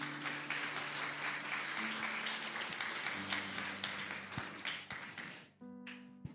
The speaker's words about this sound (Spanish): Realmente tenemos un Dios maravilloso. Yo le invito a que le dé una ofrenda de palmas al Señor.